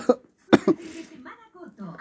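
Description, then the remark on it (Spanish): Two or three sharp coughs in quick succession, followed by a low murmuring voice continuing underneath. “Rendido y tosiendo.”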